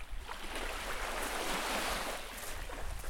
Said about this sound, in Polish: Jest i morze. Chłopaki już poszli się kąpać.